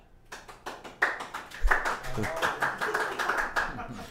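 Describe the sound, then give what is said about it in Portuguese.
A studio audience breaks into applause welcoming a guest on a show, a dense burst of many hands clapping that swells quickly and holds steady, fairly loud, with some voices mixed into the crowd noise. “Uma salva de palmas, porque hoje nós temos até plateia.”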